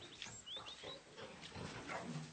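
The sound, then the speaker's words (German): Pigs on a farm grunting and snuffling, a steady stream of low rough grunts with a few higher squeals mixed in, no one speaking. “Eltern kommen mit ihren Kindern, die die Esel oder Schweine bestaunen, zum Beispiel die schwarz-weiß gestreiften”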